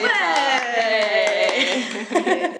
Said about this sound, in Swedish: Thank you very much! ja, applåd!